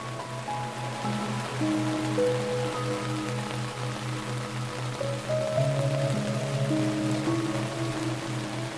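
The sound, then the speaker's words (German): Steady rain patters continuously on a small tent's roof overhead, a soft even hiss of drops, blended with gentle sustained tones and a low pulsing hum beneath. “Du lauschst dem entspannenden Klang des Regens, der leise auf das Zeltdach klopft während du deine Augen schließt und dich sinken lässt.”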